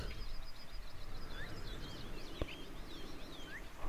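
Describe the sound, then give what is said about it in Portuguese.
Small birds chirp and twitter continuously, their high, quick calls overlapping against a soft, steady background hiss, with one brief sharper click partway through. “Vemos os passarinhos a dançar à nossa volta, sentindo uma alegria especial.”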